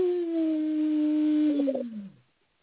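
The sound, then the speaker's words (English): A person imitates a wolf's howl: one long, steady, loud note held for about two seconds, then sliding downward in pitch and trailing off into quiet. “You ever hear a howling wolf?”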